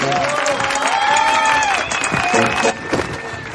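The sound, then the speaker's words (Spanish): Sustained applause from a theater audience welcoming several vedettes as they enter the stage, dense and steady, with cheering and crowd noise mixed in and a few rising whistle-like tones riding over the clapping. “Mejor que un aplauso para recibir a las muchachonas que por aquí vienen llegando.”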